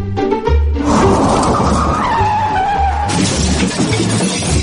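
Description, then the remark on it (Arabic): A car headlight's glass, broken by a kicked football, shatters loudly in a dense crunching, tinkling burst that carries on for several seconds over a low, pulsing engine-like rumble, with no voices. “يا أخي أنت ما تشوف كسرت فانوس السيارة شوت شوت شوت الكورة اوه يا ساتر يا ولد كسرت الفانوس”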